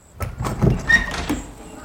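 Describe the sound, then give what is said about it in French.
The wooden door of a thatched-roof house in a forest clearing is gently pushed open with a short creak and some scraping and rustling, fairly quiet, lasting under two seconds with no one talking. “Doucement, Pio pousse la porte.”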